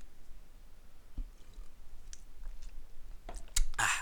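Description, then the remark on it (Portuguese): Quiet drinking sounds as a man sitting at his desk at 1:50 a.m. sips water: a few soft wet clicks and small gulps, ending in a brief louder splash-like burst, with no talking. “Vou beber aqui só um bocadinho de água porque eu estou cheio de sede, porque eu estive a treinar”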